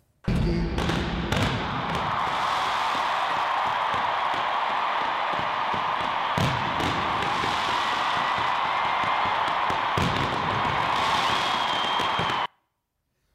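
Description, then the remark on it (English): A huge stadium crowd of about 80,000 roars loudly and continuously at an in-the-round concert, punctuated by sharp booming bursts of fireworks and flamethrowers, several in quick succession early on and a few more later, before the sound cuts off abruptly. “I've never had like fireworks and flamethrowers and all of that sort. Of... We have a clip here of that of that going on, Jim.”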